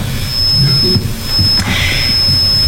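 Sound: microphone audio feedback squeal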